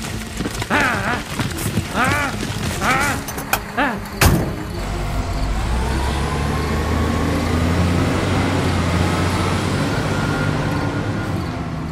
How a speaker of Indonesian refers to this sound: Mobil melaju ke jalan di Penogoro menuju ke Bumijo.